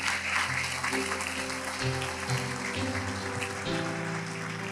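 An audience applauding, a dense, steady patter of many hands clapping for several seconds, with sustained keyboard-like tones humming underneath.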